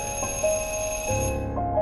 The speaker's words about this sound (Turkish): Benim için kaygılanan teyze kızının uyaran sesini kovarak dokundum kapının ziline. Ne bir hareket, ne bir tıkırtı. Bir daha daha ısrarlı. Bir daha.